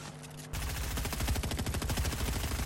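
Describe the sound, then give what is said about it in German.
Video game sniper rifle gunfire erupts after a brief quiet moment, a loud, dense stream of rapid shots cracking in quick succession for a couple of seconds, without any talking. “Bro, bitte versuch sie einmal nicht zu no-scopen. Noch ein. Bumm, noch ein.”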